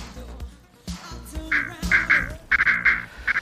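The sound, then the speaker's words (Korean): Mallard ducks on the Hyeongsan River in Gyeongju, South Korea, quack in a rapid series of loud, nasal calls, bunched together in quick bursts over a low background rumble, with the calling growing busier toward the end. “형상강에 청동오리 노는 거 보면 물반 오리반이야.”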